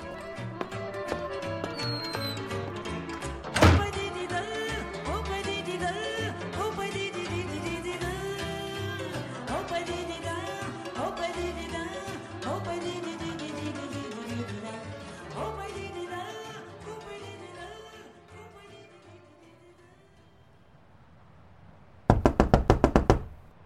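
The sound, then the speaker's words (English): Music plays and fades out, then a loud burst of rapid, frantic knocking on a door, about a second and a half of quick hard raps in a row. “And your brainless madman knocking hasn't changed since.”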